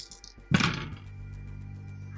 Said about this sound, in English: go ahead and mark that resonance to also get that extra dice for using a paranormal power, and roll that three dice and, and tell me what you get.